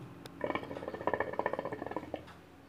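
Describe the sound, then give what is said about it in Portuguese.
Rapid gurgling bubbles from a hookah water pipe as it is smoked, a fairly quiet burst of bubbling lasting about two seconds with a quick, uneven rhythm, and no voices. “A gente está aqui fumando um nargas, cultivando a cultura do narguile.”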